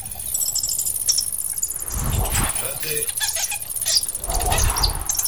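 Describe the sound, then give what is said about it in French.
Thin, high-pitched squeaks of a bat that a cat is trying to catch come in scattered short bursts over a steady shrill insect-like drone, while a person speaks a couple of brief words. “Qu'est-ce que tu fais, le chat, là Ah oui, ok, tu veux attraper la chauve-souris, d'accord.”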